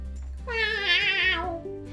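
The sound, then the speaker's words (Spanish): A single long, drawn-out meow from a hairless cat at the door, with a wavering pitch, loud, rising and then trailing off over a faint low hum. “Era el gato pelado que venía a buscar su medio bizcocho.”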